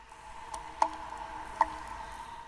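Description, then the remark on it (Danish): Two distinct water drips plop about a second apart from stalactites into a still cave lake, each a short bright splash over a steady, faint tonal hum with no voices present. “Det drøber ud på søen, som regnvejr.”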